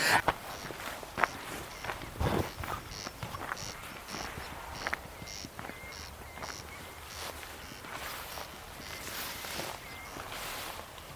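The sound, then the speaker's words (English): Dry, rasping calls of two corncrakes, males competing in an almost duet, repeat in a steady rhythm, one answering the other, over a soft outdoor background with occasional rustling and footsteps. “don't know if you can hear that, but there is very definitely a corncrake. It's responding to another one over there, there's two.”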